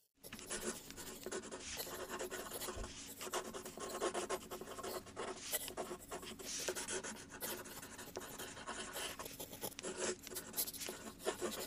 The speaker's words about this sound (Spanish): Ok, justo estaba abriendo mi cuaderno.